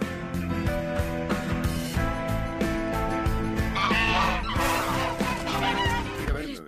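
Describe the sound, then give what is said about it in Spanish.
A flock of geese honks loudly and continuously, with many overlapping, nasal calls forming a dense, raucous chorus for several seconds. “Eso no son patos, son ocas.”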